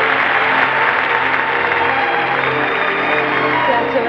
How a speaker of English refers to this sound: The applause may give you a clue. The winner. the winner. Edmund Gwenn in Miracle on 34th Street.